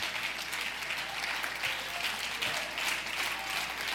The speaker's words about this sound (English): Can somebody say amen? Clap your hands and thank God for His voice.